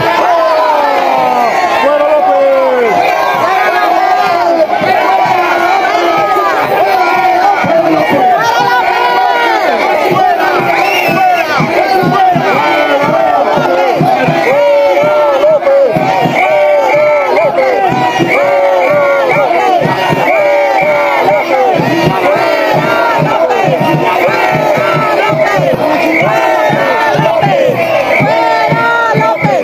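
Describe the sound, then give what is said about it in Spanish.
A large rally crowd shouts the chant "Fuera López" in unison, loud and sustained for the whole stretch, voices rising and falling in a rhythmic, repeated slogan with scattered whoops over the dense roar. “Mexicanos, no vamos a permitir la próxima venida al Zócalo que nos den órdenes de no gritar fuera López.”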